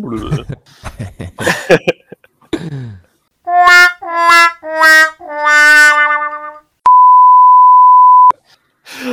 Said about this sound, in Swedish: Vi börjar om med den. Vi kör lite sån här blooper-ljud här.